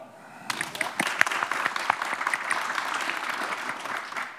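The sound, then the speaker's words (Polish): An audience breaks into steady applause welcoming an author and guests, many hands clapping in a dense, sustained patter that starts abruptly and holds at an even level throughout. “E, brawa.”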